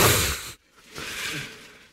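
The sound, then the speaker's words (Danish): Ice cubes pour out of a very small bag into a whisky and cola in two rattling bursts, a dense clattering rush with a brief pause between, with no talking. “nu er ved at putte isterninger via en meget lille pose, han har medbragt.”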